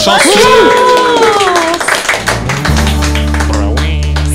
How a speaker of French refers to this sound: On refait un tonnerre d'applaudissements